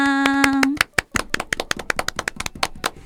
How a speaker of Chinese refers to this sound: 一直到一九二七年，第一部有声电影叫做《爵士歌手》诞生了，鼓掌鼓掌！